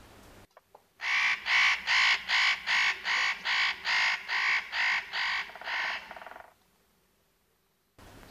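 A spotted nutcracker gives a rapid series of about a dozen harsh, rasping calls in steady rhythm, loud and grating, fading slightly toward the end before stopping, with no other sounds around.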